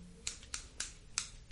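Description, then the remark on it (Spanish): Four crisp, quick snips of Barrilito scissors being cut in the air around a person, evenly spaced in a steady rhythm, with a faint low hum underneath and no voices. “Cortando las malas vibras con una tijeras barrilito a su alrededor.”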